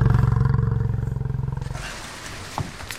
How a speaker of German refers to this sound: Da, eine Kuh, sie wirkt störrisch. Es ist die Stolze mit den weißen Hörnern. Sie springt, dreht sich halb im Kreis, schlägt aus.